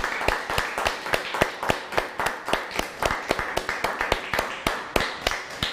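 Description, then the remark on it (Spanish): Steady, rhythmic clapping from a small group on Shabbat, applauding all the nations, sharp claps repeating at a brisk even pace for several seconds, with no talking over it. “Shabbat mis amados hermanos, un fuerte aplauso a todas las naciones desde ahorita.”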